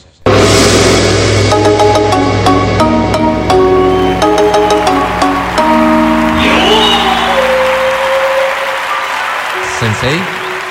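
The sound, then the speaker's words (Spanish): Steady, polite applause on the Exa FM radio programme "el show de la papaya" plays loudly for about ten seconds with tonal, music-like sounds mixed in beneath it, gradually thinning out toward the end. “Muchas gracias por ese aplauso tan respetuoso”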